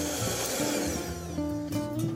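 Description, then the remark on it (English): An electric mixer beats a thick, pale egg yolk and sugar mixture to integrate the ingredients until smooth. A steady loud motor whir with a humming tone shifts pitch a few times as the beaters work, with no talking. “I'm going to make a little bit of noise again and um, and beat this, but I'm really at this point beating it just to integrate all the ingredients until they're smooth and homogeneous.”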